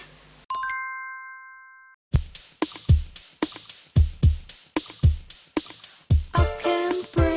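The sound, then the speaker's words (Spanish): A brief bright chime rings out, a pause follows, then a song kicks in with a steady thumping beat and crisp percussive hits, a brighter melodic layer joining near the end. No one speaks. “ya suena nuestra música de nuestros recomendados”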